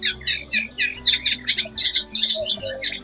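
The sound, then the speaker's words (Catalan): A Eurasian reed warbler sings a continuous, chattering song of harsh, repeated churring notes in quick rhythmic bursts, fairly loud over a low background hum. “Aquesta és la Buscarla.”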